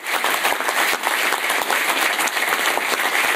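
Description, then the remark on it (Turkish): Steady, dense applause from a large crowd at the UEFA ceremony awarding Euro 2032 hosting to Turkey and Italy, as the two countries' delegations take the stage; many overlapping claps form a continuous bright wash of sound with no voices standing out. “Alkışlar eşliğinde sahneye çıkan iki ülke heyetleri UEFA Başkanı ile basın mensuplarına poz verdi.”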